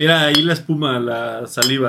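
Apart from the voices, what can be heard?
glasses clinking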